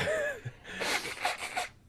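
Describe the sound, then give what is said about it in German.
A nose being blown: a run of harsh, breathy, hissing gusts, roughly three pulses in a row, after a brief whistling squeak and a short snort, with no talking. “wollt mal die Nase schneuzen?”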